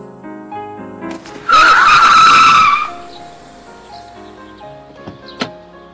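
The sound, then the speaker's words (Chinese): A car brakes hard and its tires skid in a loud, high-pitched screech lasting about a second and a half, set against a low steady hum that continues after the squeal fades. “司机守则第三条：紧急刹车是不被允许的。”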